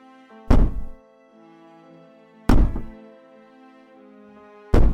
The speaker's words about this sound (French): Esprit mauvais Si tu es avec nous dans le mauvais studio, tape Trois fois.